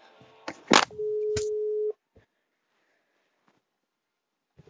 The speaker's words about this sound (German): Ja, es klingelt bei ihr.